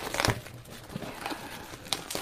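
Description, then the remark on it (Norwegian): Paper packaging is crinkled and torn open while unboxing a Facebook Portal Mini smart display, with irregular bursts of crackling and rustling, a sharp louder rip near the start and another toward the end, no voices. “Men først så må vi bare ta litt eh, papir her.”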